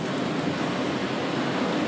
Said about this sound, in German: Ähm, ja, wir, wir hören das Meer, du hörst das Meer, ich schaue aufs Meer.